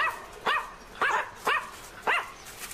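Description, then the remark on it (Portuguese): A dog named Bidu barks four times in a steady rhythm, each bark sharp, with short quiet gaps between them and no talking. “O Bidu não para de latir e eu acho que não tá gostando muito dessa nossa conversa.”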